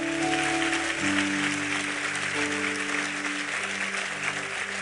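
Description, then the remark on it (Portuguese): A church audience claps in praise of God in steady, dense applause for the full length, with sustained held chords from an organ or keyboard droning underneath the clapping. “Aplauda ele, vamos embora.”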